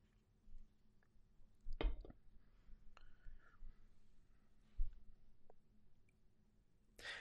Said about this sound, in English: Excuse me, I have to drink some water here.